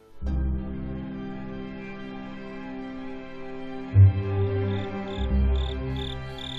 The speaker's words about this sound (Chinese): 小猪一直听着草丛里的蟋蟀在唱歌，他知道，如果天一亮，蟋蟀就要去休息了；如果蟋蟀不唱歌了，就说明天已经亮了。